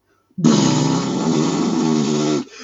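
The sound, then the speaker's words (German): A voice imitates the sound effect of a car being driven off, a steady, buzzing vroom held for about two seconds, loud, then cut off abruptly. There is no other talk. “weil ich weiß nicht, welchen Soundeffekt wir benutzt haben, aber wir alle, die wir da gesessen haben und uns geguckt haben, waren uns einig, dass dieser Soundeffekt so klingt. Ich mache ihn nach. Ich steige ins Auto ein und”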